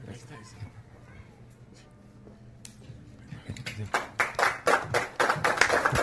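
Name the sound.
audience clapping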